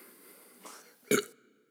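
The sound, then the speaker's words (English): A short, abrupt burp bursts out after a drink, preceded by a softer throaty sound a moment earlier, with no talking and quiet background hiss around it. “Ah, yeah, there's a burp coming in.”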